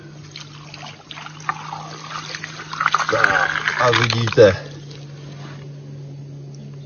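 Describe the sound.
Water is poured out in a brief, splashy rush lasting a second or two over small model houses, one built on sand and one on rocks, to simulate a flood, while people talk before and after it.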